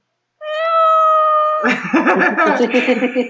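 A cat lets out a single long, drawn-out, loud meow that breaks into rougher, wavering vocal sounds with what seem to be voices mixed in.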